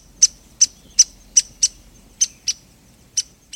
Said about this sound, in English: And a downy woodpecker brings up the rear.